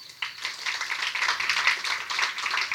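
A crowd breaks into sustained applause for an architect being introduced to talk about utopia, many hands clapping at once in a dense, steady patter that starts abruptly and carries on at an even level, with no talking over it.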